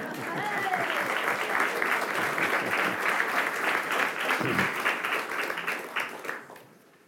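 A crowd applauds steadily for several seconds, a dense wash of many hands clapping at once, loud and sustained before tapering off at the end.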